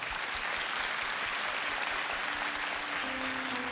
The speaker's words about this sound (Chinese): 好吧，我们给神一个最热烈掌声，好吗？